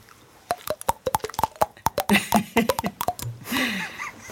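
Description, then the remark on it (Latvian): Rapid series of hollow pops from a hand slapping a cheek, around twenty quick taps with shifting pitch, fairly loud, ending with a brief breathy noise. “Pretvaigu.”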